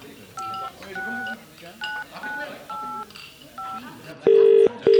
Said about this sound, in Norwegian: Han plukker opp telefonen og ringer